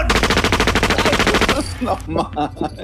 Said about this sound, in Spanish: Los disparos pasaron cerca y el señor gritaba.